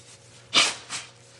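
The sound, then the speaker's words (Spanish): A single sharp sneeze, caused by allergies, bursts out loudly, followed a moment later by a softer, shorter breathy puff, with no talking around it. “perdón, mis alergias están ¿Están terribles? Están terribles hoy. Entonces me van a a toser y sonarme la nariz y todo.”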